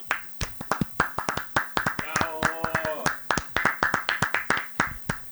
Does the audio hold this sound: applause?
yes